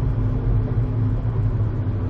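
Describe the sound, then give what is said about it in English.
Steady, deep rumble from inside a car moving slowly in Los Angeles traffic, with a low engine drone and road noise holding constant throughout and no voices. “We're slowing down. See, in, tra- in LA, don't talk about the traffic.”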